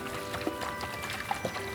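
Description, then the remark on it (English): Water and baking soda sloshing and splashing inside a slightly leaky jar being shaken, a steady churning slosh with small drips and dribbles, moderately quiet. “I need to shake this jar up, and it's a little bit leaky.”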